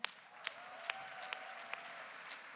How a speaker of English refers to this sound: So let's give Tangster Chef a big hand.